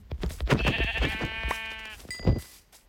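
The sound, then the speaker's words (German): A single wavering sheep bleat from a video game, clear, lasting about a second and a half amid soft clicks and rustles, followed by a brief tonal blip. “Oh, ein Schaf.”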